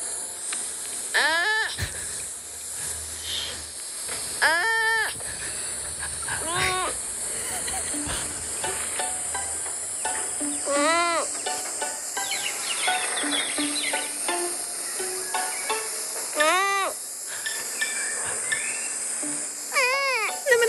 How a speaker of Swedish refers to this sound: Sengångar. Det är ganska många djur som låter så, är det inte det?